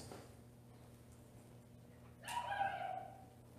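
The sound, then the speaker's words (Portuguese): A dog gives a single short bark with a whiny, yelping tone, heard fairly faintly against a quiet hum with no one speaking. “Até o cachorro sabe.”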